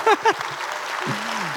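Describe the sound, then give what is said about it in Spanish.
An audience bursts into steady, dense applause for the Lord that fills the whole clip, with a brief voice rising over it at the start and a low, drawn-out vocal tone underneath near the end. “Un aplauso al Señor, querido hermanos.”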